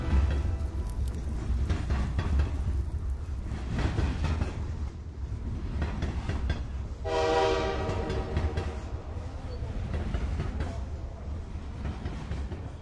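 A train rolls steadily along the rails with a continuous low rumble and rattling clatter, broken midway by a brief tonal horn blast, with no voices.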